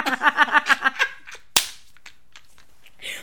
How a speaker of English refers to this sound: Whip.